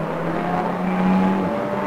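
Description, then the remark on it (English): An M240i Racing Cup race car leading the race roars past on the track, a loud, steady buzzing drone that swells briefly in the middle and shifts pitch as it goes by. No one speaks. “So legitimately now leading the race, and the M240i Racing Cup car there is miles ahead of its nearest rival, which is the Treble 6 machine, now being driven, the dark blue car,”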